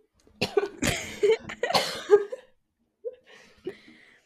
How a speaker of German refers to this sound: Es wird ganz wundervoll, weil ich die ganze Zeit Hustpausen machen muss und rausschneiden muss.